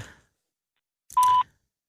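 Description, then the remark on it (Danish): A single steady electronic beep, a clean mid-pitched tone lasting about a quarter second, sounds after a brief pause: a voicemail tone signaling that recording has begun, with some faint line noise around it. “Dette er voicemail tilhørende. Mm. Annette Dilling. Mm. Indtal din besked efter tonen.”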